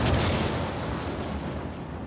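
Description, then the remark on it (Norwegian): A loud thunder crash after lightning flashes across the sky rolls out as a dense, sustained rumble with no clear pause for about two seconds, heavy and booming throughout, with no voices. “Et lyn farer over himmelen, og en skikkelse treffer ham i skogen.”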